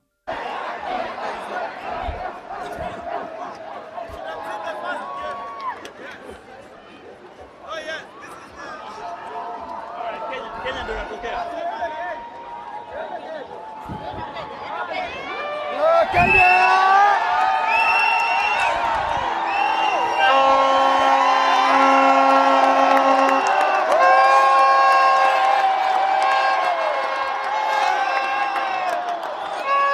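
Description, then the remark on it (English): A large stadium crowd at a rugby sevens game involving Kenya cheers and chatters, with whoops and shouts rising sharply partway through into a sustained, louder roar of excited voices and high-pitched yells. “Here are the sights and sounds of the Kenyan game from my perspective.”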